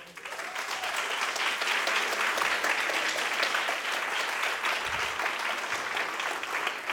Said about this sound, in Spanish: Así que donde quiera que estén, un fuerte aplauso a ellos dos.